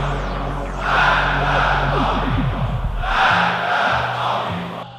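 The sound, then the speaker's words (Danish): A large demonstration crowd in Iran shouts "Death to America" in unison, their massed voices swelling in two long rhythmic bursts of chanting, loud and echoing, with a low rumble beneath. “I Iran er USA den store satan og som skoledreng var jeg selv med til demonstrationer, hvor jeg stod med min spæde drengestemme og råbte død over USA.”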